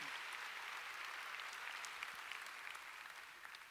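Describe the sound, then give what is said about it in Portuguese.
An audience at a morning church service applauds God steadily, a dense wash of many hands clapping that holds for several seconds and eases slightly toward the end, with no talking over it. “Quem acha que ele merece um aplauso nessa, nessa manhã?”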